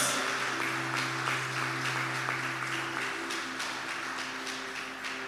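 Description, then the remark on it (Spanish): An audience claps steadily in praise of the King of Kings, the dense applause holding at an even level throughout with faint sustained low tones, likely an organ or keyboard, underneath; no voices stand out. “Vamos, denle un fuerte aplauso al Rey de Reyes, Señor de Señores.”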